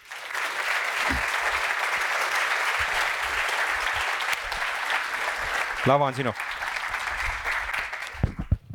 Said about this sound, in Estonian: ja teeme väga-väga suure aplausi